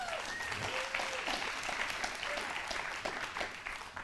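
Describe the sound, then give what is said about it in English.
A church audience applauds steadily during a morning service to welcome two pastors, dense overlapping hand claps at an even, sustained level, with a few faint whistles and voices mixed into the clapping. “Y'all give them an awesome hand clap this morning.”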